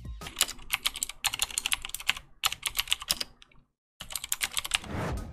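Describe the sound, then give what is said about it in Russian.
Rapid, crisp clicking of a mechanical keyboard with loud clicky blue switches, keys struck in quick bursts with a short silent pause partway through; alone, no voices. “При нажатии клавиши некоторое расстояние идет свободно, а затем чувствуется легкий упор. После чего раздается щелчок и происходит срабатывание.”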